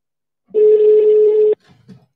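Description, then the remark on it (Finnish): A steady telephone dial tone sounds for about a second, loud, then cuts off abruptly as a call is placed from a hotline number, followed by a couple of faint, brief clicks or murmurs. “mä soitan nyt tästä hotlinein numerosta, koska tämä on ainoa, minkä mä saan edes auttavasti kiinni.”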